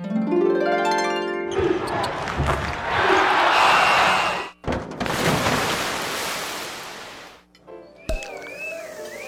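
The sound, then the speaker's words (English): A quick run of canned sound effects played on a sound effects machine: a rising, springy tonal sweep, then loud whooshing crashes like surf, another noisy burst, and a warbling electronic tone at the end. “Yep, I bought a sound effects machine.”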